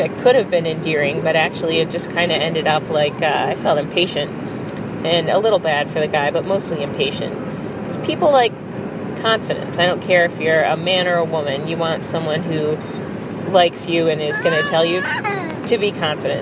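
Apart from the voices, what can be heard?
car interior road noise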